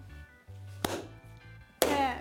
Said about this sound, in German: Ich freue mich auch, aber weshalb applaudierst du denn? Ja, das ist Wertschätzung. Der Applaus gilt dir für deinen tollen Job, den du in den letzten Jahren hier bei T-Online gemacht hast.